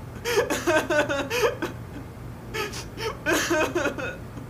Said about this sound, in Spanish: Sus hombros caen y suelta el llanto. Un llanto amargo que logra calar el alma de quien lo escucha.